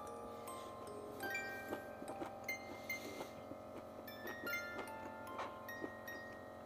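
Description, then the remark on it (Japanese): Crisp crunching of someone chewing crunchy bamboo shoots (menma) coated in a thick sauce in ramen, a series of irregular bites and snaps over a faint steady background hum, with no talking. “メンマシャキシャキすぎてうまっこのメンマがこのドロッドロのソースに絡みついてめちゃくちゃうまい なんだこれは”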